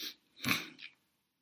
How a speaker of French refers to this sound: C'est pas l'émotion, c'est parce que je dois éternuer.